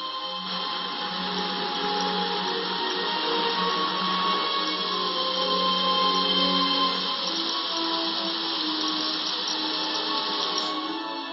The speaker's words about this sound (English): The waterfall is the linchpin in the lives of the swifts, but each morning they must depart the security of their home.